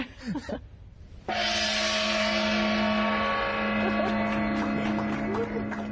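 After a brief murmur of voice, a gong is struck once, loud, its rich metallic tone swelling and ringing on steadily, shimmering for several seconds without fading away; it is sounded at the end of a shift to send instructions to a rover on Mars.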